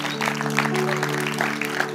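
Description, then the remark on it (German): Steady applause from an audience, a dense wash of clapping at moderate loudness throughout, with a low sustained tone humming underneath. “Hey, wenn du das gerade zum ersten Mal gebetet hast, dann ist der Applaus für dich”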